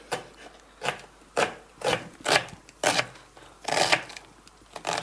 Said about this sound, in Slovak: Celkom na drobno a na jemno sa nakrája cibulka. Ja tu prekrajujem ešte v strede, aby to bolo ešte drobnejšie.